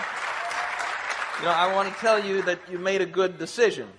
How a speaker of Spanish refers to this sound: A ver, ¿quiénes están aquí por primera vez? Muy bien, un aplauso.